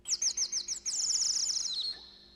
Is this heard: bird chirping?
yes